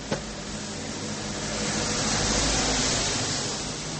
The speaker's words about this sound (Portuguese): mais um carro, gente. Esse eu não vou dar pausa, só escuta.